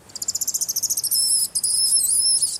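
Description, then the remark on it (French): A mongoose, Frimouste, passing just in front in Guadeloupe, gives a shrill, high-pitched call: a quick run of about fifteen sharp chirps speeding into a sustained buzzing trill, briefly broken once, with no voices present. “C'était quoi ce cri bizarre Frimouste, la mangouste.”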